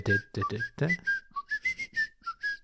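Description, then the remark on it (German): A person whistles a short, bouncy TV theme melody, the notes hopping in a quick rhythm with brief gaps, clear; a voice murmurs briefly at the start. “Kennst du es nicht? Die Adams, Family?”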